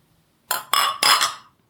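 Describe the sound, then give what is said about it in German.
Beer glasses clink together in a toast, three quick bright strikes in succession with a short ringing tail, fairly loud, with no voices over them. “kleben die Gläser auch. Selbst beim Anstoßen wird dadurch das Klingen.”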